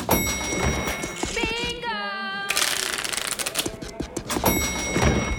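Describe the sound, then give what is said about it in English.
A chore wheel spun by Chet spins with a fast, steady run of rattling clicks that continues throughout, briefly interrupted by a warbling tone partway through. “As Trashzilla's stinky trash rampage raged on, Chet spun the wheel and got.”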